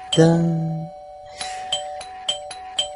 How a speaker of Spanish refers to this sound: ¿Quién puede estar llamando el timbre a estas horas?